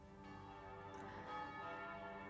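Church bells ring out steadily over an island, their rich overlapping tones sustaining and blending into a continuous resonant peal, with no voices present.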